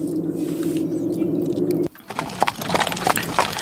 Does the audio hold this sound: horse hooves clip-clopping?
yes